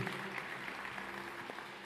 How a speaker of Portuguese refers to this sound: Enquanto isso, igreja, dê uma salva de palmas recebendo a todos esses irmãos que estão chegando aqui pela primeira vez hoje.